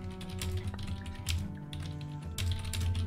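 Rapid, uneven clatter of keys on a computer keyboard as fortunes are typed into the Roll20 chat, fairly quiet, with bursts of quick strokes and short pauses over a low steady hum.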